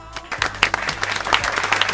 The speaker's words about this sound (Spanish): Fuerte, aplauso.